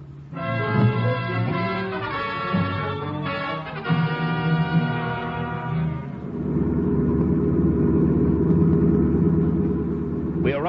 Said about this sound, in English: Now come up alongside the other car. But come on, step on the gas.